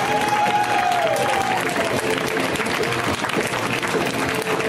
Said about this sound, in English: Please, everybody, start clapping right now. Like, let it really let it build. Let it get thunderous. Let them hear it.